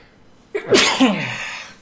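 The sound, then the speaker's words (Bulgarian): A single loud sneeze bursts out after a short quiet moment, with a sharp intake and a forceful breathy release that trails off. “Това беше радостно кихане.”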